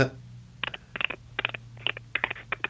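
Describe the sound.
A person imitates a dolphin with a rapid series of squeaky chirps and clicking bursts in uneven clusters, moderately loud over a steady low hum.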